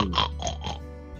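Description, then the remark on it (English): A voice imitates a pig, the sow Gemma Bean, giving three quick, nasal snorting grunts in a rough rhythm, moderately loud, trailing off into a low rumble with no other talking. “snorts up at you.”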